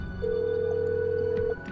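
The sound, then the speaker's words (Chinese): A call to a mother's mobile phone rings out: one steady, mid-pitched ringback tone holds for just over a second, then stops, over a faint low hum with no talking. “这天下班，我破天荒的拨通了妈妈的手机。”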